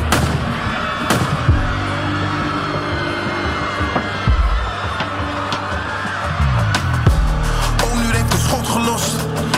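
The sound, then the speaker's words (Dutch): Sharp gunshot cracks from a killer firing in a shopping street ring out repeatedly at irregular intervals over a dense, rumbling background, some bursts coming in quick succession and loud. “Er is een killer aan het knallen met een korte lont.”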